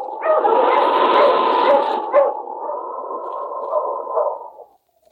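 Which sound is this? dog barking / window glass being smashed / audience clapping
dog barking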